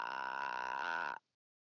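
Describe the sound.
A person makes a clicking noise in the back of the throat, a loud, buzzing run of rapid clicks lasting about a second before stopping abruptly, with no talking.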